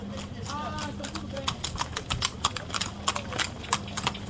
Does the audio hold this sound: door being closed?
no